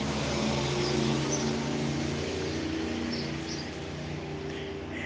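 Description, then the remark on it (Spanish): A loud car rumbles past outside, its engine a steady, broad drone with a low hum that fades slightly toward the end. No one speaks. “Ah, no era un señor, era un coche escandaloso.”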